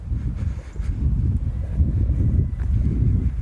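Steady low, rumbling wind buffets an outdoor microphone fitted with a large furry windscreen, a continuous muffled roar with gusty swells and no voices, loud.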